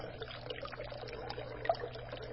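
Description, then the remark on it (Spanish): Clear water pours steadily into a jug, a continuous bubbling gush with a hollow, resonant tone and small splashing flickers throughout, fairly quiet and with no voices. “El agua clara caer sobre el cántaro.”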